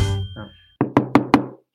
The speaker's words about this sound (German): Hallo, ist da wer? Kuckuck. Wer klopft denn da so blöde rum?